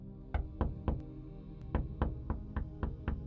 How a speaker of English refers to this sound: It was on Friday, the 14th of July, that the knocking began at the Lord House, happening much as it did in Heidelberg on separate occasions over several hours.